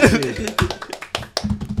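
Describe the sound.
A quick run of sharp hand claps, roughly eight or nine crisp slaps in an uneven rhythm, with a voice murmuring and laughing underneath.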